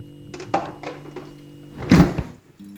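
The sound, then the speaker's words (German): A few light clicks and rattles, then a refrigerator door swings shut with a solid, muffled thunk, fairly loud, followed by quiet. No one speaks. “Ich mach die Tür hinter uns zu.”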